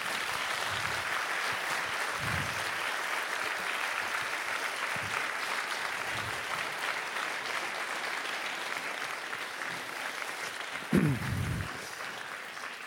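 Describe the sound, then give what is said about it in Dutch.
An audience applauds the guest author at the close of a literary event, sustained applause that fills the whole stretch, a dense, steady wash of many hands clapping at an even loudness, with a brief louder burst near the end before it begins to thin out. “Maar een applaus voor onze gast, want ik denk dat het echt wel de moeite is.”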